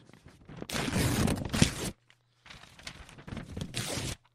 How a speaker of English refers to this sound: You hear that ripping? I'm talking about ripped money. Have you ever been one of these uh, people that someone hands you a $20 bill or a dollar bill or a $5 bill and it's friggin' ripped right in half? It's just like torn right in half.